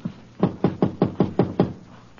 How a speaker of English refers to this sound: Apartment 2B. You gonna knock? Yeah.